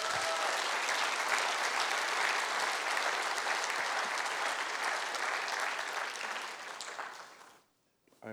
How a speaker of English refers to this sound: Give the Lord a hand clap of praise, would you?